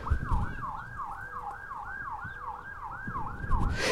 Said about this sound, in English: yeah, unless that's that's a fire truck actually probably. But enjoy that too. Why not? you know, go in the backyard and listen to that.